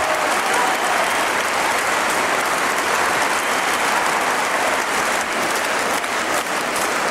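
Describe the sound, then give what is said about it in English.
Rousing concert crowd applause at Horowitz's performance in Moscow, a dense, steady roar of many hands clapping at once that stays loud and unbroken for the whole stretch, with no voices standing out. “His niece met him at his Moscow performance, along with this rousing crowd.”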